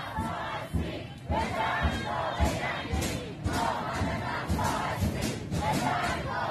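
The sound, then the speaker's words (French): A large protest crowd in Iran chants slogans against the Islamic system and its leaders in unison, loud and dense, with rhythmic surges of shouting repeating every second or so and a steady roar filling the background. “On entend surtout les slogans contre le système islamique, contre les dirigeants.”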